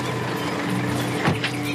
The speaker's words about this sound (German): Ein Taxi stoppt zwischen Streifenwagen und weiteren Pkw.